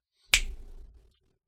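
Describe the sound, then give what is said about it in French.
A single sharp finger snap with a crisp, bright crack, followed by a brief low-pitched decay that fades within about half a second; no voices. “Claquement de doigts.”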